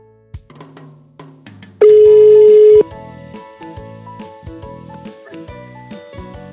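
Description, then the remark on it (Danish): A phone ringing tone on an outgoing call to the Valåsen ski resort, Sweden's southernmost ski resort: one steady, loud, flat tone lasting about a second, sounding over light melodic background music with no talking. “Og derfor tænker jeg, at det kunne være sjovt lige at ringe op til valglåsen og høre, hvordan ski- eller snesituationen ser ud op hos dem.”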